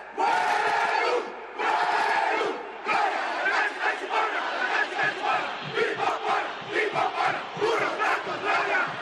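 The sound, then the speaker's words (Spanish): A large crowd of Politécnico American football fans roars and chants together after an interception returned 70 yards for a touchdown put the Guindas ahead 7 to 0, starting with long sustained shouts, then breaking into a rhythmic, pulsing chant that stays loud throughout. “Y la afición politécnica fue la primera que estalló.”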